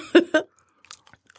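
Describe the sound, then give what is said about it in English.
Two loud crunches of someone biting into crunchy flavored popcorn, followed by a short pause and faint, scattered chewing crackles. “okay, y'all, we in here passing popcorn back and forth.”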